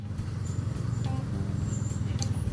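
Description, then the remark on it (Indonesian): A steady low rumble of road traffic, with engines droning continuously and a few faint high squeaks and brief clicks on top. “gue mau kemana sih mobil-mobil ini ya Tuhan”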